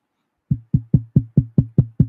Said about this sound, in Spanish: Alguien toca la puerta.